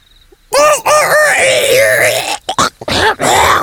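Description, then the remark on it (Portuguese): A loud voice imitates a rooster crowing, a long strained cock-a-doodle-doo with wavering, rising and falling pitch, breaking into a few short choppy bursts before a final stretched call. “Às quatro da manhã, meu canto acordava a família toda para trabalhar. Meu canto sempre foi o mais viril da região.”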